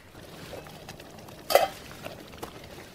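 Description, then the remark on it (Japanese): A pot of meat sauce, made with 200 ml of water, simmering over low heat for about three minutes with a soft, steady bubbling hiss as a spoon stirs it, one brief louder scrape midway, no voices. “そしてかき混ぜながらひと煮立ちさせますでさらに弱火で3分ほど煮込めば出来上がりということです”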